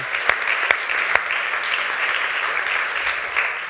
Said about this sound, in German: Aber ich glaube, ihr habt euch auch einen fetten Applaus verdient. Das sind alles Jugendliche und die machen einen super Job.